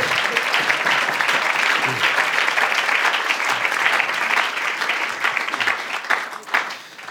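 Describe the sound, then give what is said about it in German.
An audience applauds steadily at a CVJM Baden evening event as a guest speaker is thanked. The dense, overlapping clapping fills the space at a loud, even level throughout before tapering slightly near the end. “Applaus”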